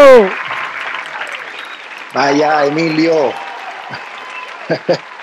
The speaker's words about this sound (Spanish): Y tenemos en línea un aplauso